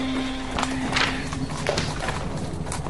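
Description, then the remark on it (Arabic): Horse hooves clop in an uneven rhythm, with a sustained whinnying tone early on. The steps are fairly loud against a steady background murmur. “هذا الحصان كرهته يا أبي لا يركز مثل الآخرين أنا اخترته لك”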